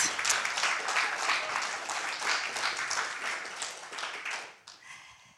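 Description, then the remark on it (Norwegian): A crowd applauds a guest being welcomed, steadily, dense overlapping hand claps at an even level for several seconds before quickly fading out near the end. “Gi henne en riktig stor applaus.”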